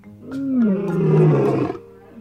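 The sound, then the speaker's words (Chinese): A lion lets out one loud, rumbling roar lasting about two seconds, deep and gravelly with a wavering pitch, then it fades into quiet. No one speaks. “爱丽丝说的没错，狮子试图把自己塞进爱丽丝的玩具屋里。”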